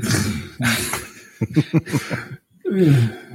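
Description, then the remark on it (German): A run of coughing from a woman with a bad cold: several short, sharp bursts in quick succession, framed by rougher, throaty hacking. The coughs are moderately loud, with no talking over them. “Ähm, ich, ich hoffe, äh, meine Freundin ist irgendwie gerade äh, total erkältet und ich hoffe, man hört das Husten hier auf der Aufnahme.”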